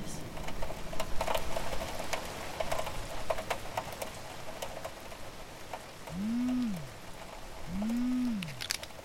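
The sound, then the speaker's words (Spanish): Steady rain falls in a city centre, pattering on a hard surface with scattered sharper drips ticking through it, and two brief low swooping tones break in near the end. “Yo vine al centro y me llovió justo cuando llegué.”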